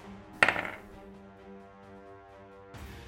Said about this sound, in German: ähm, ist, hast du jetzt Vorteil, das heißt, du darfst den 20er nochmal würfeln und das höhere Ergebnis quasi nehmen von dem 20er.